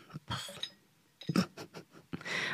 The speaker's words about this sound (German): ein Deckel, den du mir gerade hingeschmissen hast. Den finde ich toll.